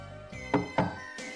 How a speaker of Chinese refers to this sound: 端午节这天，蛇、蜈蚣、蝎子、蜘蛛、蟾蜍这五种动物排着队，去找人类讲道理。 一二一，一二一，稍息，立正，敲敲门。